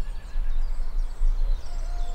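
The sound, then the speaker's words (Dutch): A rooster crows at dawn, very early on a Sunday morning on the Konijnenberg, in a drawn-out, wavering call, its high harmonic tones rising and falling over a steady low rumble, with no voices. “En een haan die er naar kraait.”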